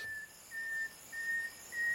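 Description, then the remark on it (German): A nightingale male's whistling call, sung mainly at night and carrying very far: a series of four clear, steady high-pitched whistles, each about a third of a second long, repeated at an even pace with short gaps, no voices. “Und diese Pfiffe tragen sehr weit.”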